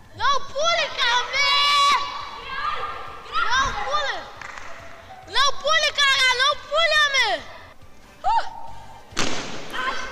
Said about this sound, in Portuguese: Esse é o barulho dele caindo. Esse é o barulho né? dele caindo.